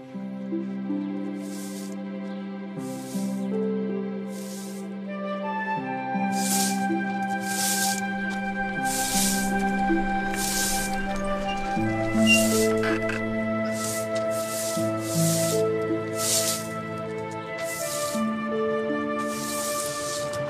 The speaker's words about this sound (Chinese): 你都这么大岁数，你还扫什么院子呀？ 年轻人有年轻人的事儿，我这么大岁数了，活动活动对筋骨有好处。